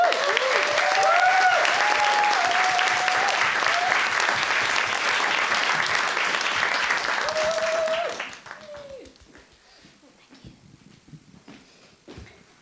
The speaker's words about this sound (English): Now let's give a massive round of applause